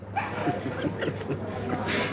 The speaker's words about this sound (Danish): Der er en hund, der gør.